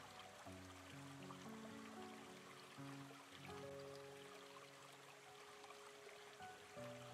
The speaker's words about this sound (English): Keep watching the stream and listen to the sounds of the water floating down the stream. The bubbling and softly popping sound of the water.